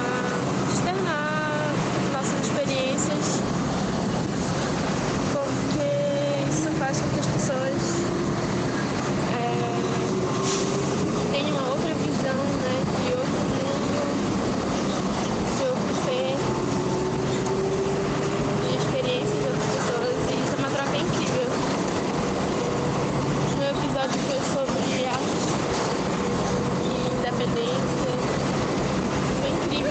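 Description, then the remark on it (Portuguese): A bus engine drones steadily from inside the moving vehicle, its pitch climbing and falling as it shifts through gears, with road rumble throughout and faint, indistinct voices now and then. “E ela mandou assim, direto do ônibus da vida dela corrida.”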